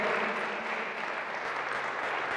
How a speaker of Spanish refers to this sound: Dale un aplauso fuerte, Señor, hermanos.